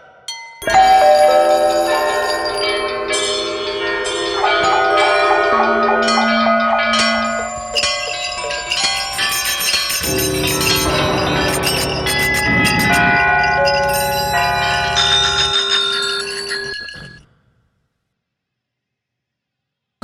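A loud, busy clatter of many bells attached to a person's leg ringing and jingling together, with layered bright tones swelling and overlapping for about seventeen seconds before cutting off into silence.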